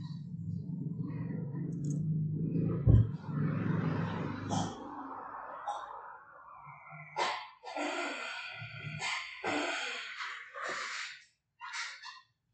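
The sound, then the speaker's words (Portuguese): A pet female dog growls: a low, rumbling growl holds steady for about four seconds, followed by a string of short, breathy huffs and sharp clicking bursts with brief gaps between them. “Gente, minha cachorra rosnou aqui.”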